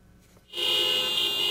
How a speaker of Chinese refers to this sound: 一整排计程车集体按喇叭抗议，西班牙的卡车和计程车司机都走上街头示威，抱怨油价太高，实在吃不消。